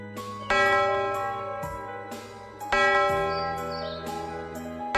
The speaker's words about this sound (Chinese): 回忆森林里响起了钟声。